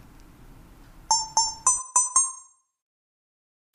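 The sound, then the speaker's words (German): A short, bright musical jingle marking the start of a timer: five quick chime-like notes in rapid succession, each ringing briefly before fading, heard clearly over faint background noise and followed by silence. “Um den Anfang dieses Timers irgendwie zu signalisieren, wann das irgendwie losgehen soll oder so, dann wird Anja dann später noch ein bisschen einen kleinen Musikjingle einspielen”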